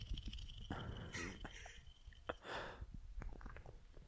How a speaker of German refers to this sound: Jetzt wird die Hefe gelöst. So klingt das.